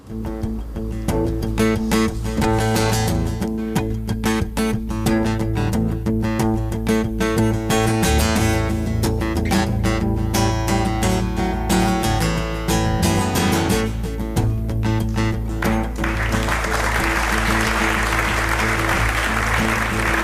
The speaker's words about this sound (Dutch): Hier zijn ze met momenten. Eerst applaus.